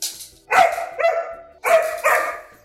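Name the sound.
dog barking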